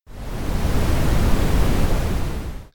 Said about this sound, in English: And that will be your audio cue for Joe Brown. Apparently, that sound is called brown noise, which I only found out after I searched for the word brown on a free MP3 download site.